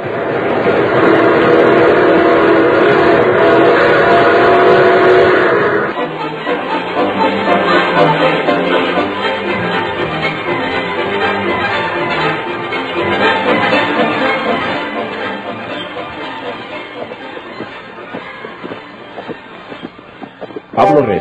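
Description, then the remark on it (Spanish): A train pulls into the station in Monterrey: a loud, steady metallic screech for the first few seconds gives way to a continuous rumbling clatter of rolling cars that eases slightly toward the end. “Nos abajamos del tren en mero Monterrey, en la mera estación, sea el Nacional o el Golfe, donde nos toque.”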